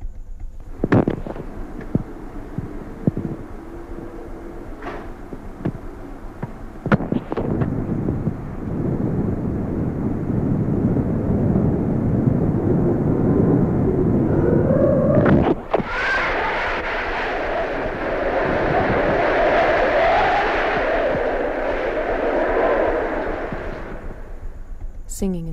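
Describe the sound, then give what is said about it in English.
A loud, continuous roar of storm wind with rising and falling gusts, rough and distorted, recorded on a personal tape recorder, preceded by a few sharp thumps and crackles. “People are recording the sound of the wind on their personal tape recorders.”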